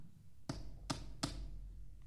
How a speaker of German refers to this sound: Und bald kam er auch zu der kleinen Hütte und klopfte an.